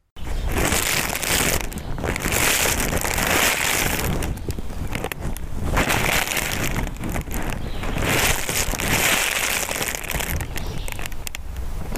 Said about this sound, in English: Moving your hands closer and farther apart, you can pop it and it will sound like wings flapping. So that's the noise that you're about to hear.